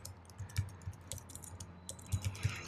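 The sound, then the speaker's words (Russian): Rapid, uneven typing of a Google search on a computer keyboard, a flurry of light clicks and taps with a few heavier keystrokes, heard alone without any talking. “Нет, ну сейчас погуглю, мне интересно.”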